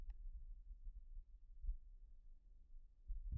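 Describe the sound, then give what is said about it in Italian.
A faint airplane drones overhead as a low, steady rumble with a slight pulsing quality. Nothing else breaks an otherwise quiet outdoor setting, and no one speaks. “Ecco, adesso passa un aereo che rompe la magia di questo luogo”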